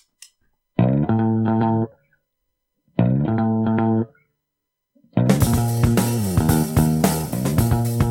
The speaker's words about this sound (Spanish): ¿Flipas o no con este riff de guitarra?